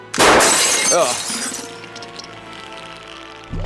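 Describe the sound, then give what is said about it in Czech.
A capsule is smashed with a small hammer in one sharp, loud shattering crack, then bright glassy fragments tinkle and ring down over the next second or so. A brief vocal sound follows. “Máš kladivko? Já Musíme jsem roz... na tanec a na party teď necítím. Rozbít tu kapsuli.”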